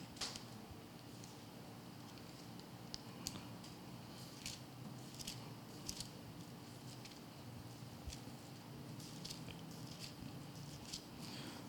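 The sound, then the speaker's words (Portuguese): Thin pages of a Bible are flipped again and again, turning to Mark chapter 2, producing a steady run of soft rustles and crisp paper snaps over a quiet, low background hum, with no talking. “Hoje a gente está folheando legal, né?”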